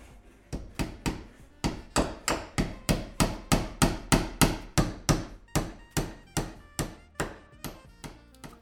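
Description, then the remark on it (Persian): A heavy sledgehammer pounds a wall in a bazaar again and again in a steady rhythm, roughly twenty-five loud, sharp blows in quick succession, with no voices. “صدای ماشین های نجاری رو در دور دست میشنوم و صدای پتکی که به جون دیواری افتاده”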